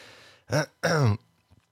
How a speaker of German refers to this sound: Es kann auch sein, dass ich ein paar Mal noch husten werde und mich komisch gerade anhöre. Es tut mir sehr leid. Klingt ein bisschen, als hättest du Halsschmerzen.